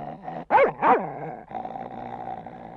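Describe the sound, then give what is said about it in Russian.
A dog gives two sharp, rising snarls in quick succession, then settles into a low, steady rumbling growl, fairly loud, with no one speaking. “Ну, ну что ты, что ты рычишь ты, глупый пес?”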